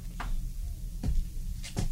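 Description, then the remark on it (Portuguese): A few short wooden knocks and scrapes as a furniture drawer is opened to fetch a revolver, over a low steady hum, with no one speaking. “Ah, esse móvel aqui. A gaveta está aberta, já vou, já vou pegar aqui, ó.”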